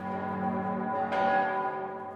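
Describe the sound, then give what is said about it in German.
Church bells of St. Stephen's Cathedral in Passau, Germany ring with a sustained, rich metallic hum, and a fresh strike about halfway through renews the resonant tone; no voices are present. “Drei der insgesamt acht Glocken im Nord- und im Südturm stammen aus dem Hause Perner.”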